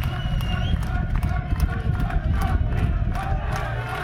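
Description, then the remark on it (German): A roadside crowd cheers passing riders in a women's cycling race climbing wet, slippery cobblestones after heavy rain, with yellow-jersey wearer Corin Rivera at the front: a loud, continuous roar of many voices shouting and yelling at once, with sharp claps and bangs cutting through the steady din. “Ich lasse mal das Publikum für sich sprechen.”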